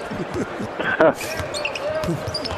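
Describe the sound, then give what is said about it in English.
Bradley Beal dribbles a basketball on a court with a high right-hand dribble as he attacks the basket. Steady thudding bounces sound over a busy crowd murmur, with a couple of brief high sneaker squeaks cutting through. “Bradley Beal, high right hand dribble, attacking to the basket to Gobert, misses the layup.”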